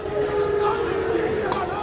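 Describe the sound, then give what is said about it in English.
A large football crowd at Celtic Park boos steadily in a dense, sustained roar as the visiting Rangers team bus arrives, with a droning low pitch running through the noise and a brief sharper burst near the end. “That's yes, it's the visitors, it's the Rangers bus arriving here at Celtic Park.”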